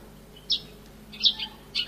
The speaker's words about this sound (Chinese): 是什么？麻雀，哎，你们真的很厉害啊！